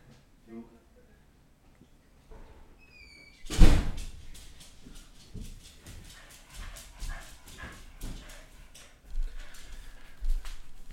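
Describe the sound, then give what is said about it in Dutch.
A door is handled: a sharp, loud thump and rattle of it opening, then scattered knocks and shuffling as it swings and shuts, with faint voices in the background. “Deur even Ja, de deur wel”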